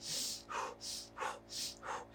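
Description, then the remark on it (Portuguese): A person imitates the rapid, heavy panting of someone overcome by emotion: six quick breaths alternating between sharp, airy exhales and lower inhales in a steady rhythm, with no talking. “Você começa a ficar mais ofegante”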